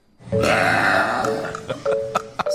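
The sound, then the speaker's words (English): A woman's long, loud, resonant burp rumbles for about a second and a half, followed by a few short sharp clicks and small gulping sounds as it trails off. “so I simply decided to buy my own decibel meter and I burped a 109.”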